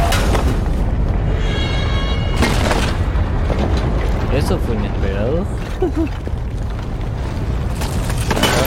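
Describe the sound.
In a video game, the car the player was riding in suddenly explodes with a deep, loud booming rumble and crackling debris that fills the whole clip, while a man speaks over the blast.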